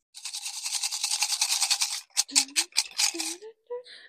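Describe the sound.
Steady crinkly rustling of someone rummaging through paper slips in a box, then a few sharper rustles as a slip is drawn out, with a brief voice speaking over them.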